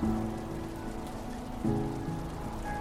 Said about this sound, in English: I open the door to the wind and the rain. I feel the cold air on my face